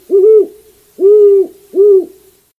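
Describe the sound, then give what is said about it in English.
A great horned owl hoots three times, deep and resonant, each note a sustained low tone with the last two coming closer together; the call is clear with no other sounds. “On a possibly related note, this is what a great horned owl sounds like.”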